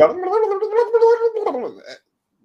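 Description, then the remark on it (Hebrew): A voice mimics rapid, sped-up chatter, a continuous burbling stream of garbled nonsense syllables lasting about two seconds, then it stops abruptly into silence. “אני שומע פודקאסטים, שומעים אותי, את הפודקאסטים בעברית על מהירות של 1-8. אוקיי. Okay. עכשיו, יש שם גם פרסומות, אבל זה נשמע כמו”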